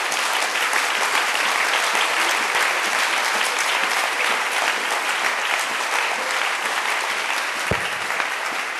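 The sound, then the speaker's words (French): A church audience applauds for the Holy Spirit during a French-language sermon, a dense, sustained wash of many hands clapping at once, loud and even throughout with no voices breaking through. “Applaudissons pour le Saint-Esprit.”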